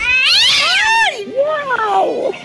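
A cat meows in the distance, two long, wavering meows back to back, the first rising high and shrill, the second lower and trailing off. Loud and prominent, with no talking.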